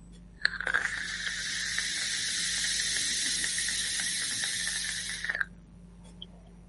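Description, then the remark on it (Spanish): A steady airy hiss as air is drawn through a Pioneer Inside Boro vape device with its airflow set to 3, its maximum, runs for about five seconds with a faint crackle, then stops abruptly. It is moderately loud, with no talking. “Entonces, he de decir que el cacharrito lo llevo con, el paso de aire 3, que es el máximo que tenía.”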